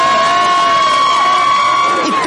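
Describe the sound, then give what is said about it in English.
Children of the Kentridge student body in the stands at a basketball game cheer and shout together in a loud, steady crowd roar, with high sustained yells and whoops running continuously throughout. “Once things got underway, the kids on the court poured their hearts into the game. So did the kids up in the stands”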